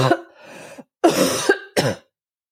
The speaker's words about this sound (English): That's more of a chesty cough. I don't know if you could hear that difference.